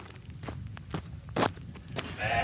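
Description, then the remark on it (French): Outdoors early on a hot morning on a sheep cheese and lamb farm at L'Hôpital-Saint-Blaise in the Basque Country, soft footsteps and light thuds shuffle over a low breezy rumble of wind over cut grass, then a farm animal lets out a short, nasal bleat at the end. “Peu de bruit dérange l'exploitation, nous avons rendez-vous, si ce n'est celui du vent, caressant les herbes coupées, et celui des animaux, déjà bien réveillés.”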